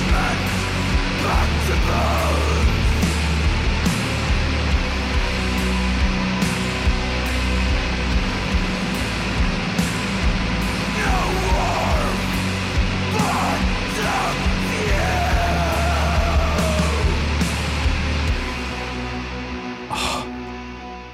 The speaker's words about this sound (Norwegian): Det er jo bare helt fantastisk uh, sludgy, doomy saker. Stemmer. Det, vi liker det treigt og tungt, ja.